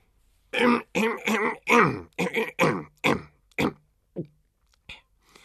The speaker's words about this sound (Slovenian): Dvorni sluga se je dostojanstveno odkašljal in začel brati.